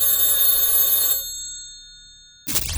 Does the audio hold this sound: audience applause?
no